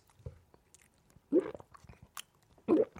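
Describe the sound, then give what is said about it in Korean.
A voice mimics drinking beer: a few short, wet gulping and smacking mouth noises in an uneven rhythm, with two louder swallows standing out against quiet pauses. “맥주 마시는 소리 들려줄게.”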